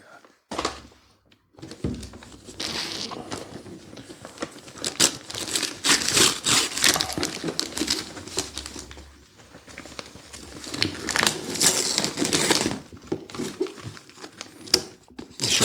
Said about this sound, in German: reiße Stück für Stück das Papier hier weg und es kommt raus ein The Minimum Fly Space Consuming RC Airplane in the World.